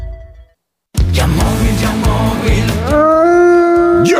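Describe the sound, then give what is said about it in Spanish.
After a short silence, a loud burst of noisy layered sound gives way to a long, rising wolf howl that holds a clear, sustained tone, with no talking. “Estamos en Halloween y los lobos acechan.”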